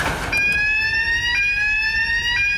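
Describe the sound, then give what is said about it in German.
A radiation contamination monitor, which one steps onto and puts a hand into after showering, sounds its alarm to show contamination: a loud, steady, high-pitched electronic tone with a buzzy, layered timbre, briefly pulsing about once per second, with no voices. “Heißt das jetzt, ich bin kontaminiert, oder? Das heißt, dass man kontaminiert ist.”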